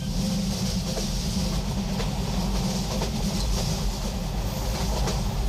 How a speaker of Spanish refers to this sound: Y el tren al que nos hemos subido es el Costa Verde y viaja despacio. Es uno de los trenes turísticos que tiene Renfe en nuestro país y recorre la ruta entre Santiago de Compostela y Bilbao.